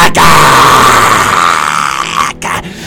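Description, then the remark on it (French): Inuit katajjaq-style throat singing by a female singer from Nunavut, blended with contemporary expression: a loud, rough, guttural voice droning continuously with a buzzing, grunting texture, broken by a couple of quick breaths near the end. “Je vous en ai déjà parlé force de la nature et son art musical qui est une sauvage hybridation de kataïa couchant de gorge et d'expression contemporaine implique à la fois séance rituelle chamanique de la thérapie par le cri primal”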